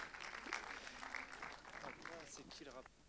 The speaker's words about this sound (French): Merci beaucoup. On peut, on peut, on peut applaudir.